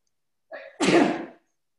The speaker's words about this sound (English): excuse me, I have to sneeze.